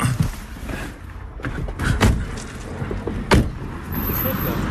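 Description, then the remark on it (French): Someone climbs out of a car beside a canal: rustling and handling noises, then two sharp car door thuds about a second apart, over steady outdoor background noise. “Allez, on sort de la voiture.”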